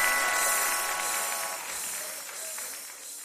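A crowd applauds steadily as the host is welcomed, a dense, hissing wash of many hands clapping that holds at a fairly loud level and slowly tapers toward the end, with no voices on top.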